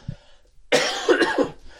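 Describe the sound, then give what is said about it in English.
A man gives a harsh, raspy cough that rattles for nearly a second, fairly loud, with a brief throaty sound just before it and no talking, while he is preaching. “Please pray for me, pray for my cough, pray that I'll be able to preach.”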